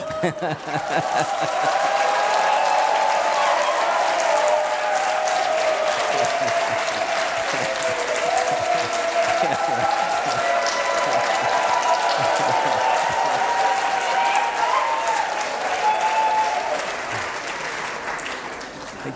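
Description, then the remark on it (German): Sustained, loud applause from a large audience, dense clapping with some cheering voices, continuing steadily for many seconds before tapering slightly at the end. “Ich möchte auch mal so viel Applaus bekommen”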